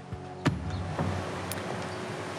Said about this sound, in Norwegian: takk til Sylvi Listhaug og til Arild Hermstad og til kostebilen som kjører forbi oss i bakgrunnen, hvis det var noen som lurte på hvem den deltakeren var.